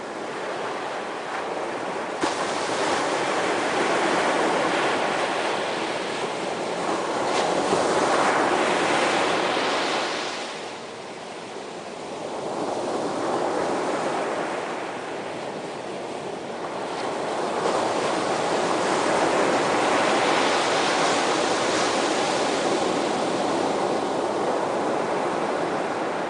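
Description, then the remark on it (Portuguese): Ocean waves wash steadily onto a beach, the surf swelling and receding in broad, rolling surges with a constant hiss of spray and some wind, with no voices. “Por último, vamos relaxar e ouvir a paisagem sonora de uma praia.”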